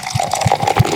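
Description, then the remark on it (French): Beer glugs and splashes as it is poured into a glass, a continuous liquid rush with soft bubbling pulses, no voices. “On verse et on déguste.”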